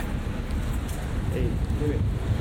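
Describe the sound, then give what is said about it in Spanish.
Binaural recording made at head height while walking on a street in Madrid: steady city street ambience with a continuous low rumble of traffic, moderately loud, with a couple of faint, brief voice-like tones in the background. “Y ya estamos en la calle, en Madrid.”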